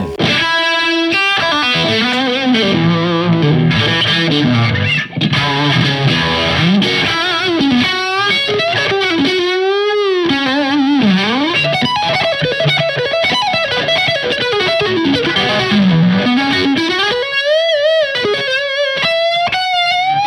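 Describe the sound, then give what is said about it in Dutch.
An electric guitar played through a Fulltone Deja Vibe modulation pedal, its bending melodic lead lines swirling and throbbing with a warbly, slightly overdriven tone, loud and continuous with no voices. “Eh, en de Deja Vibe oh, van Fulltone.”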